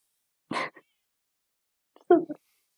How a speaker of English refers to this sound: I also have a uh, Instagram which you can look at my wonderful cat who is very angry that I'm not feeding him He's right so now. Cute, though.